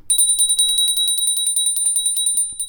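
A small, high-pitched bell rings rapidly and continuously, its quick strikes blurring into a bright, steady trill. It sounds clear, with no voices, and stops after about two and a half seconds.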